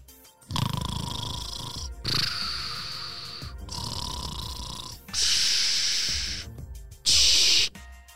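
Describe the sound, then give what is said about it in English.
Five long, rasping snores in a steady rhythm, each one a loud, drawn-out breath with a tinny, filtered edge, heard over a walkie-talkie. The last two are harsher and louder. “I hear you snoring on the walkie-talkie”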